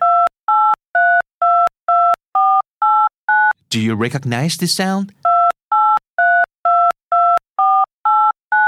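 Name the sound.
phone number being dialed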